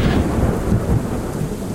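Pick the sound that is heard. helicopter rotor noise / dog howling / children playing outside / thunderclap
thunderclap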